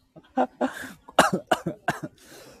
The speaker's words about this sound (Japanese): すいません、なんかむせました